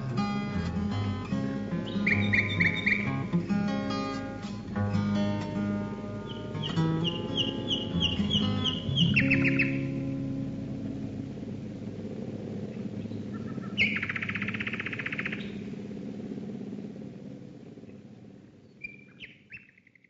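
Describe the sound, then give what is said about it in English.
A live recording: a nightingale sings loud, varied phrases of whistles, trills and rapid chirps over a steady low droning rumble of RAF bomber planes passing overhead, which slowly fades toward the end. “And what you just heard there was …, a live recording which comes from an album called ….”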